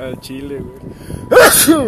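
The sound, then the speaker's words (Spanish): A loud, sudden, sharp sneeze bursts out near the end, following a short stretch of casual talk. “Salud. Ah, gracias, primito.”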